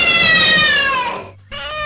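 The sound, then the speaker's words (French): A cat whose tail was stepped on lets out a long, loud, drawn-out meow that slowly falls in pitch, breaks off briefly, then starts a second yowl. Distressed-sounding, with no talking. “Alors ça c'était un chat, d'accord Ça c'est un, chat.”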